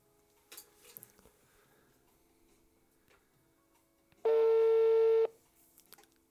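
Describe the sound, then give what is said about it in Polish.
A phone call being placed to a friend: faint clicks and taps, then a single loud, steady electronic connection tone holding for about a second before cutting off, with a faint tick afterward. “Tutaj czekamy teraz na połączenie.”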